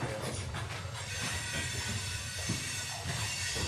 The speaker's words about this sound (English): Wait, should we wait for this train to go? Yeah, we should. You should wait. Yeah. Or we can close the. Is the window open? Yeah. That might be why. Close, close it.